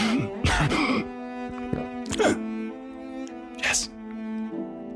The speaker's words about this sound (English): And he coughs.